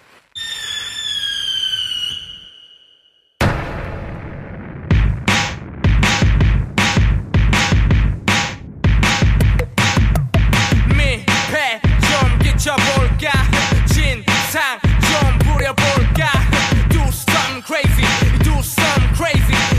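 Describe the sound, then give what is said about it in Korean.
A Korean hip-hop song opens with a whistling, firework-like rising tone, then a loud, driving beat kicks in with dense rhythmic vocals, playing steadily in a radio studio. “힙합 한 곡 더 들어볼 건데요. 국내 힙합 가져왔습니다.”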